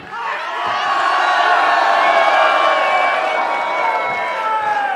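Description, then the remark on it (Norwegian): A large audience cheers and applauds continuously, a loud dense roar of shouts, whoops and clapping that swells early and holds steady throughout. “Det var mer applaus for eh, Daniel enn for oss”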